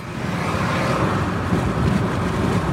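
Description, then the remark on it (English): Steady, loud roar of wind and road noise from inside a moving car with its windows rolled down in a South Carolina spring, as other cars move by; a continuous rumble with no talking and no distinct passing vehicle standing out. “In a South Carolina spring, your windows might be rolled down like mine. Either way, you're enjoying the ride as other cars move by.”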